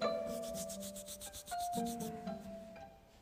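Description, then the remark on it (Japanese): Palms are slowly placed together and rubbed in a steady back-and-forth rhythm, a soft swishing friction repeated about a dozen times over a faint background hum, with no one speaking. “はいそれではゆっくりと手のひらを合わせて少しこすり合わせてみましょうかそしてそのこすり合わせた手のひら”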